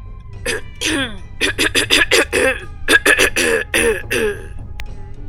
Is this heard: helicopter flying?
no